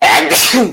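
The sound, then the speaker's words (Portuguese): A single loud sneeze: a sharp, breathy burst that bursts out and fades within a second. “Saúde.”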